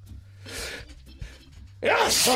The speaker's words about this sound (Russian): Будьте здоровы